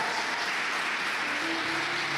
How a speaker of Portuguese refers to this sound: Mas eu queria que você nessa noite honrasse a vida deles com uma forte salva de palmas ao Senhor, se você pode.